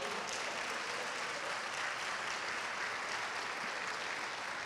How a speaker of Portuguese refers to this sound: Não é isto bonito? Você quer dar um aplauso?